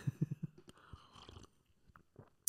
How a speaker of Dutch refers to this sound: Ik neem Dus even een slokje thee, mensen.